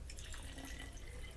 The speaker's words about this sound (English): Shout out to me pouring my Chardonnay in his Cabernet.